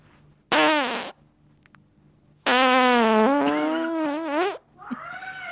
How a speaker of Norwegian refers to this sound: OK, finalefisen. Finalefisen.